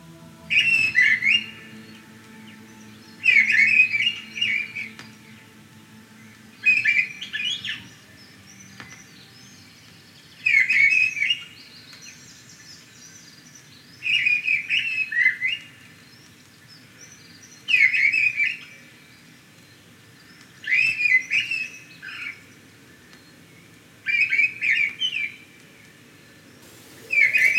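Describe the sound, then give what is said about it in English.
Woodland birdsong chorus of wood pigeon, mistle thrush, wren and hedge sparrow: clear, bright warbling phrases repeat in regular bursts every few seconds, fairly loud over a soft low background hush. “Wood pigeon, mistle thrush, wren, and the brisk warbling of a hedge sparrow join together in chorus.”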